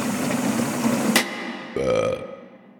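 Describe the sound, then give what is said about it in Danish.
A long, rumbling burp rolls out, followed after a short pause by a second, shorter and more tonal belch that trails off into quiet. “Bøvser, de dannes blandt andet i mavesækken, hvor kulsyre spaltes til vand og koldioxid, som er en gas, altså koldioxid.”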